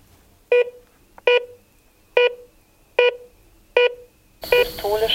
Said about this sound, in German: Diastolischer Wert 123, diastolischer Wert 73, Puls 83. Genau, das war jetzt ein Blutdruckmessgerät.